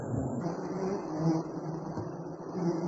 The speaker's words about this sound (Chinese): 几乎被黑压压的蜂群包围着。站在数百米外看完以后，恰似被一团浓雾围拢。蜂鸣声不绝于耳，多少人被蛰伤